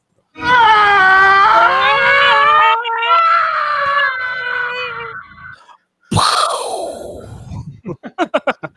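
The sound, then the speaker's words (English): An eerie, otherworldly sci-fi sound effect: a loud, wavering wail that bends in pitch for about five seconds, then a sudden burst that sweeps downward, ending in a quick run of pulsing chirps. “Like anytime they had like an alien ghost thing, that's what that sounded like.”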